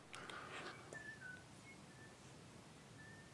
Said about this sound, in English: Do you hear who's whistling?